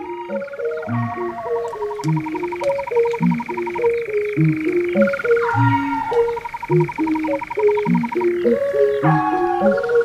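A steady, rapid churring trill like a nightjar's song runs almost unbroken over a looping, stepping melody in a music track. The churr is prominent, shifting pitch briefly a couple of times, with no talking.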